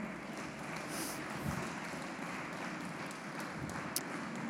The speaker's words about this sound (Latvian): Sakiet, jums patika, kā bērni uzstājās šovakar? Jā, pateiksim paldies bērniem ar aplausiem.